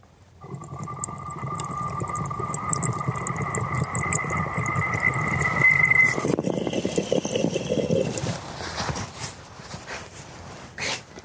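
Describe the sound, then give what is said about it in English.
Wet, steady bubbling and gurgling from a bong hit of weed, wetter than intended because water accidentally got into part of the bong, with a thin whistling tone over it for about six seconds, then a rougher airy rush fading into a few short breaths. “Uh, uh, it's a lot wetter than it uh, is supposed to be, I believe, because we accidentally got some water into this part.”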